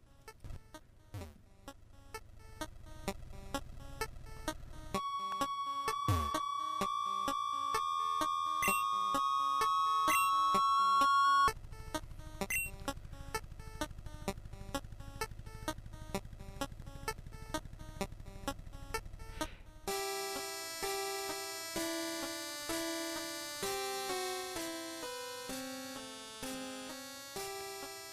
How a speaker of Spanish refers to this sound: Yo creo que si la escuchas más de dos, tres minutos, te aturde. Es algo, ¿cómo se le llama? Como chip music o chip de música. Sí, mira, mira, nada más escucha. Vamos a poner un poquito de la canción.